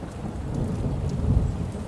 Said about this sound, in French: Une tempête approchait. Déjà, quelques gouttes tombaient sur le bateau et chassaient les mouettes. On entendait au loin le bruit du tonnerre.